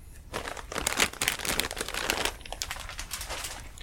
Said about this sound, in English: My favorite sound is the sound of sour cream and onion pirate's booty corn puffs that are uh, lightly stale Mm-hmm. and apparently all over my floor now hmm. because I picked up the wrong end of the bag oh. because I was not looking.